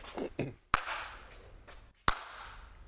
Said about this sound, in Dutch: Dan moet je even op de middenstip gaan staan. Denk hier. Dan moet je even goed in je handen klappen. Voel je dat, hoor je dat kaatsen?